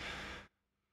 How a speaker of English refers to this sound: By the way, breathing in through your nose, breathing out through your mouth, that works really well.